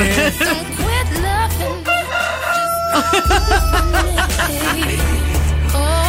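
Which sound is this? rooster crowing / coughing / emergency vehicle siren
rooster crowing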